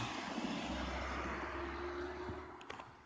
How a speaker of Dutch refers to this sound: Eh, er komt even een auto.